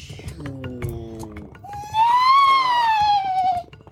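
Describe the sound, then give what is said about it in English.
Eerie, unearthly horse neighs: a lower, wavering cry that slides downward, then a loud, sustained high-pitched whinny that swells and fades, set against a rumbling, busy background. “Upon this, you hear the name, like the neighing of horses, like you have never heard oh, before.”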